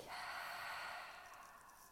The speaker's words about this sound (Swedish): Tillsammans tar vi ett djupt andetag.